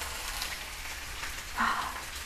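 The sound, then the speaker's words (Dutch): A steady, soft crackling hiss of chicken sizzling in a frying pan, fairly quiet and continuous, with a slightly louder burst of spitting partway through and no voices. “dan hoor ik nog steeds de kip, maar dat geeft niet.”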